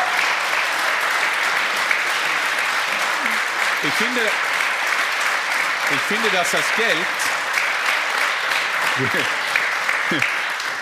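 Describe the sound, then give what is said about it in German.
Steady applause from an audience, a dense crackle of many hands clapping throughout, while a voice speaks briefly over it in short phrases. “Ich kriege hier das Ohr und er kriegt den Applaus.”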